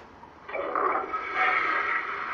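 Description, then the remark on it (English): A toilet flush sound effect played for Kyrie Irving: a sudden loud rush of water after a short quiet moment, a steady swirling gush lasting about two seconds, alone without any voices. “We like to flush his ass down the toilet.”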